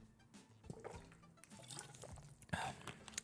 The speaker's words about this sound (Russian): сейчас Калинов родник пью, э, пол-литровая негазированная вода, минеральная, природная. Давайте сейчас оценим.